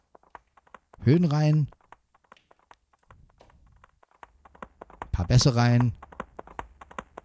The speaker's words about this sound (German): Ein bisschen Pferdchenreiten. Aber wieso hat das Pferd einen Hall? Aha, ist schon besser.